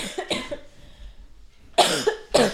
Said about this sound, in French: Et il y a une dernière, dernière anecdote, et mince, j'ai envie de tousser.